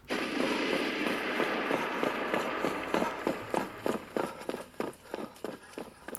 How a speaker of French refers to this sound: des bruits de pas rapides et de voix affolées trahissaient la panique des pirates.